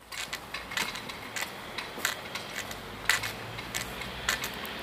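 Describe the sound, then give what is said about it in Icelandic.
A steady series of sharp, light knocks on a metal street sign, about a dozen taps in an uneven rhythm over a soft, constant background hiss, with no voices. “En þetta skiltis banki hljóð hefði átt að heyra í vinstra eirinu.”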